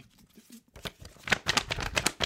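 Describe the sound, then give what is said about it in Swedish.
A person imitates the rapid flapping rattle of cardboard pieces stuck in bicycle wheels to sound like a motor, a breathy burst of clicks that starts quiet and grows louder and faster over about two seconds. “Men det var ju samtidigt som man tyckte det var fräckt att stoppa in liksom, pappbitar i, i, i däcken som skulle låta...”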